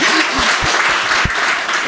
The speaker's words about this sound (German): Applaus